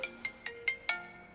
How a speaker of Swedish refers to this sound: Nu ringer det. Det är min telefon. Vem är det? Förlåt.